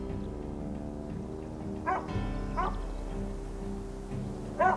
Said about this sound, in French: Un chien s'approcha, cabotant, l'air heureux, pour venir lui renifler le visage.